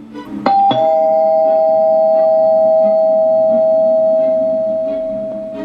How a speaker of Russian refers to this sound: И тут в дверь позвонили.